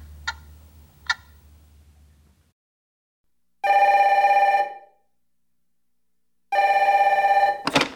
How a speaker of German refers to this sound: Jetzt geht da Sicherheitsalarm die ganze Zeit. Und ich weiß nicht, ob da noch jemand rum ist.